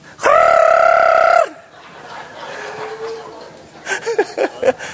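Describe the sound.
A man's loud, shrill, sustained shout of excitement rings out for about a second, then falls away to a quiet murmur before brief bursts of laughter-like voices near the end.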